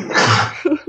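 A single loud sneeze bursts out as a sharp, breathy blast, followed by a short voiced sound as it trails off.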